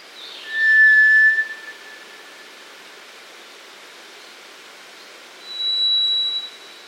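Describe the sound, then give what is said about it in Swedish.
Two long, pure whistled notes from a White's thrush (guldtrast), the first lower and steady, the second a higher ringing tone after a pause, over a constant hiss of rushing water or noise. “Den har ju en fantastisk sång, måste jag säga. De här två tonerna som är helt olika, som inte liknar någonting annat.”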